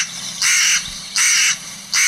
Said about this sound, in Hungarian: Figyelj, a dolmányos varjú az egy sanszos.